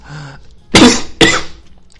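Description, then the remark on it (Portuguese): Two sharp, harsh coughs in quick succession, loud, with a brief faint murmur just before them and no talking over them. “Eita, gente, deu uma tosse aqui agora.”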